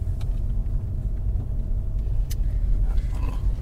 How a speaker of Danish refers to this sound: Nu kører vi på campingpladsen. Ja, lige nu holder vi stille på campingpladsen, fordi lige der er to biler.